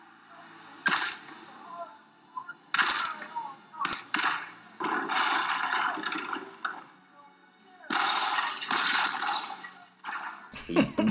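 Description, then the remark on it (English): A flurry of cheesy punch and kick sound effects as a wrestler is beaten after being dragged into a locker room, sharp whooshing thwacks landing in irregular bursts, some longer and hissy, loud with brief gaps between the hits. “We hear some like cheesy sound effects of like punches and kicks, and it's so cheesy.”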